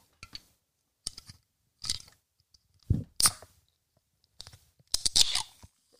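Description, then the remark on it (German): A passion fruit and orange lemonade drink being opened for ASMR: a run of short, sharp crackling snaps and clicks in about six separate bursts with brief gaps between, fairly quiet overall, with no voices. “Dann mache ich mir meinen Drink auf.”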